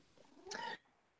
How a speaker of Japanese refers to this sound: またやっぱり猫が鳴いてます。すね、すません。始まると何かを感じるんですよね、きっとね。